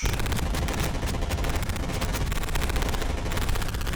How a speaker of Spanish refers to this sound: el automóvil de Emilio Tro fue impactado por más de 60 disparos